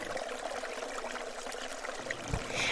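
A steady rushing, trickling flow of blood coursing through blood vessels, from the heart and to the heart, continuous and fairly loud, with a brief low thump near the end and no talking.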